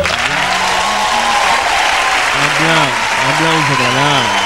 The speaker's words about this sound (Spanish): nada, aplauso, todos!